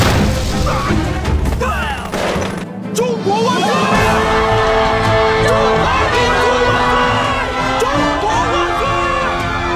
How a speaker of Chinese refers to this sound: 守军利用重机枪将日军炮兵阵地摧毁，围观群众纷纷拍手叫好。